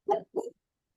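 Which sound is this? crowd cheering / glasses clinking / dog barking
dog barking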